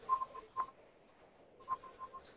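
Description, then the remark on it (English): The speaker's own phone, left switched on by mistake, rings faintly at the back: two short bursts of repeated electronic tones with a brief pause between them, and no one talking. “I'm sorry, that's my phone in the back that I forgot to turn off.”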